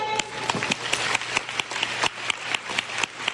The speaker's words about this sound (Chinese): 想要当尊王大师的在哪里？给自己一个掌声。